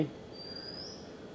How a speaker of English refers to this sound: all chirping of birds